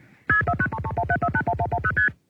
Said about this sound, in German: Das ist eben auch das C5-Wählverfahren ähm, mit äh, sind spezielle Töne und da sind dann noch ähm, unter anderem Routing Codes mit dabei und man sagt eben, ob man ein Transitgespräch führen möchte